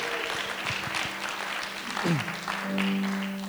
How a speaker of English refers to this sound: And like, he brought the band together and they rocked. So, can you just give them a round of applause for everything they do?